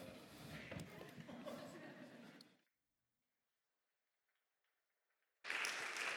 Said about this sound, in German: Ein Applaus für unser Theaterteam. Sehr gut.